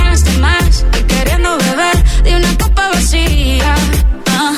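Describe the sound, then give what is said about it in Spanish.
A newly released pop song, a collaboration by two Colombian singers, plays loud and full, with a sung lead vocal gliding over a steady thumping beat and deep bass, continuous throughout with no talking over it. “mientras estábamos durmiendo esta madrugada hora española se ha estrenado la nueva canción”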